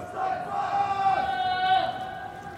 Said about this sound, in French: On les voit, ils attendent seuls ou en groupe, et comme la police passe souvent, on les entend surtout. Ils crient pour prévenir les dealers qu'il faut cacher la marchandise.